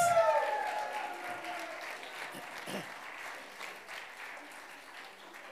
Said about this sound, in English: Give everybody a big hand up here. We have some of the best angels and bell ringers and even some nice looking cows over there. Oh, it's amazing. Such talent we have in this church. Give all another big round of applause.